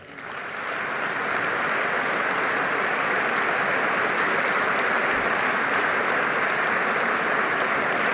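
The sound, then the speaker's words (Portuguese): An audience at a PSD party event claps steadily and loudly for Aníbal Cavaco Silva and Manuela Ferreira Leite, a dense wash of many hands that swells in over the first second and then holds at full strength without pause, with no voices over it. “Mais uma ronda de aplausos para Cavaco Silva e Manuel Ferreira Leite.”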